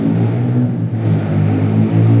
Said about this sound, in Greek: Ναι, το πιάνει, δεν το περίμενα. Τι εννοεί. Το, το πιάνει πολύ άσχημα το μηχανάκι.